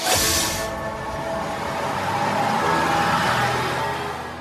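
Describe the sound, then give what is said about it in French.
A short, loud burst of air hiss, like brakes or doors releasing, gives way to the steady rumble and whine of an idling Linka public transit vehicle stopping at the Barbé stop in Laval as passengers get off, with no talking. “On vient d'emprunter la Linka, on descend à Barbé.”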